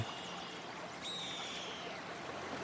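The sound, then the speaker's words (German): Gentle waves pushed up by a canoe drifting slowly with a shallow current lap steadily against its hull, a soft continuous watery wash, with a thin high whistling tone appearing partway through. “Leichte Wellen werden vom Kanu angestoßen.”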